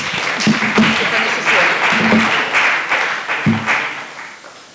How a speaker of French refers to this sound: Super, merci. On peut l'applaudir.